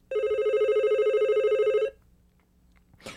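A telephone rings steadily for nearly two seconds with a bright, warbling electronic tone, then cuts off, leaving quiet room noise and a brief rustle at the end.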